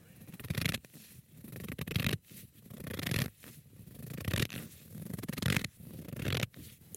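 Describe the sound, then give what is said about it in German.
Crunching sounds like footsteps in snow, though not recorded in snow, at a steady walking pace: about six gritty, rasping steps each lasting under a second, with brief quiet gaps between them and no voices. “Ich vermute, dass ihr auch sofort erkannt habt, dass es sich hierbei um knirschende Fußstapfen im Schnee handelt.”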